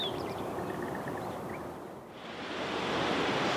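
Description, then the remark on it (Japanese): The Nachi Falls waterfall in Japan, one of Japan's three great waterfalls, roars in a steady, dense rush of falling water, loud, with a slight dip midway before surging back. No voices are heard. “今朝は日本三名瀑の一つ那智の滝のいい音”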